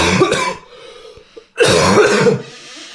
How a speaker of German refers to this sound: Hüsterchen mal raus.